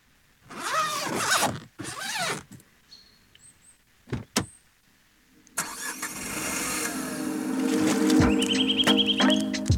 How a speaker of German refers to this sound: macht er den Reißverschluss zu, bevor er losfährt? Na, bevor man das Haus verlässt, erstmal Reißverschluss zu.